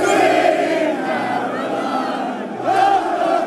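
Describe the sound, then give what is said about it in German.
A huge crowd of football fans at Wembley Stadium in London roars and shouts, celebrating a historic victory, a dense, loud wall of voices that swells again near the end, with some voices rising into yelling cheers. “So klang das am Wembley Stadion.”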